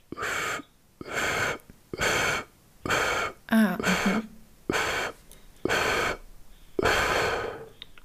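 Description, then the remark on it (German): Eight short, forceful breaths pushed out through the mouth in a breathing exercise, exhaling in eight steps after breathing in through the nose and holding the breath; each a breathy burst about half a second long with brief pauses between, in a steady rhythm, fairly loud and without talking. “Das heißt, ich atme ein durch die Nase, halt an und atme jetzt über 8 Schritte durch den Mund aus.”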